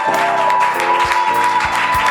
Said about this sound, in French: Et cette acclamation que je te donne, c'est pour te rendre grâce déjà dans le nom de Jésus.